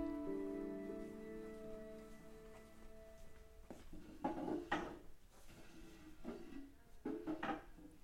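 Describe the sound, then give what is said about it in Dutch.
A hostess drags a chair across the floor of an empty neighbourhood living room on a Wednesday afternoon in March, with a long, droning scrape, followed by several wooden clunks and bumps as it is set down, with no one talking. “Behalve de vriendelijke gastvrouw die zo nu en dan een stoel verplaatst, is er niemand.”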